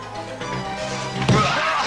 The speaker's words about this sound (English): a fucking Looney Tune sound. Thump.